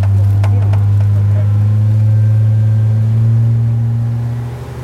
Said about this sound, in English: We're just leaving the harbour at Loreto and we're in a relatively small open boat, maybe six, seven metres long with an outboard on the back. The water's really calm.